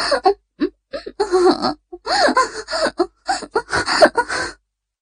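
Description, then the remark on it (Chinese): Heavy panting and rising, wavering moans come in uneven bursts with brief pauses, fairly loud and wordless. A single voice appears to be performing the sounds rather than speaking. “在一片喘息声中，两人精疲力尽的瘫软在床上。”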